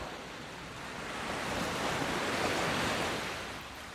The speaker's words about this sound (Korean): 파도가 점점 심해질 거예요.